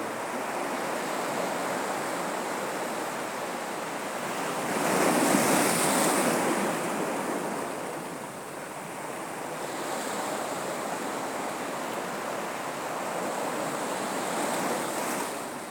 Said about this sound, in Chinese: 去听当下的声音是什么？去听那水流冲击的声音，去听它的距离。